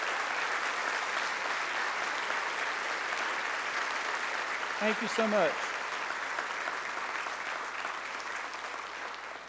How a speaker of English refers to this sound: So let's give them a hand clap and thank you so much for your service.